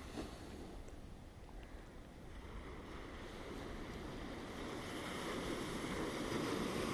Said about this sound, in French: Connecte-toi aux vagues, à l'océan que tu peux entendre derrière moi.